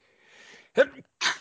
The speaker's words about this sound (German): Entschuldigung. Gesundheit. Gesundheit.